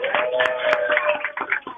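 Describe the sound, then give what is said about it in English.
A group of people cheers and claps together, a dense, steady patter of many hands under sustained whoops and shouts, loud and continuous for a couple of seconds. “I want this room to give a little cheer to the uh, the listeners, real quick, guys, real cheer.”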